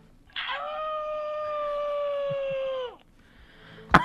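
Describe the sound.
A person's imitation of a coyote, sent in as an audio recording: a single long howl held at a steady pitch for a couple of seconds before sliding down and cutting off, then a sharp click.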